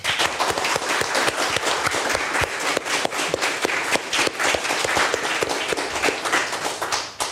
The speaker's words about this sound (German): Großer Applaus für euch.